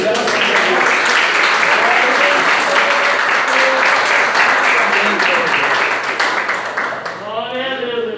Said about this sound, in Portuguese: Aleluia. As palmas que louvem o Senhor. Amém.